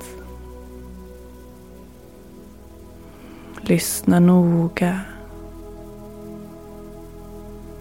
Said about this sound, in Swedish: Och fokusera på ljudet av regnet.